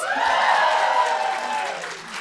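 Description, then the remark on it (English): An audience at a panel cheers and applauds loudly and steadily to vote for Dark Souls, a dense wash of clapping with whoops rising above it, sustained for a couple of seconds before tapering slightly. “I think I feel like the Destiny one was louder.”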